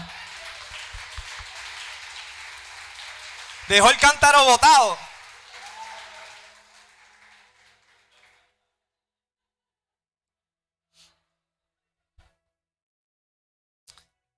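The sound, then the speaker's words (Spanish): A dense wash of audience applause fills the opening seconds, briefly interrupted by a man speaking loudly over it, then gradually fades away into near silence with a few faint clicks. “Dale un aplauso, dale un aplauso.”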